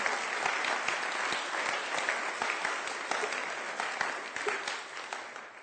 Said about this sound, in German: Dürfen wir jetzt nochmal klatschen.